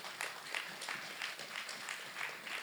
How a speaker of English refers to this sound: God will never give up on you. That is good news, and you should be clapping for that.